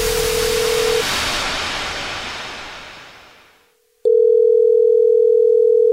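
A telephone line tone at the start of a prank call on The Jubal Show: a brief beep over a loud rushing hiss that fades to near silence, then a steady, loud electronic tone for the final two seconds. No one speaks.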